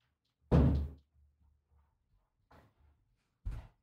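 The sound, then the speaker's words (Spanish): A door on a set moves and knocks on its own: one heavy thud, then after a pause a softer knock and a final solid thump, with no one speaking. “Empezó una puerta a moverse sola en el set, por lo que están preocupando.”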